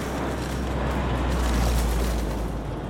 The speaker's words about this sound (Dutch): Eenmaal buiten sta ik praktisch onder de vliegtuigen, de een nog groter dan de ander. Ik hoor de brullende motoren van een opstijgend toestel en ruik de uitlaatgassen van de vliegtuigen.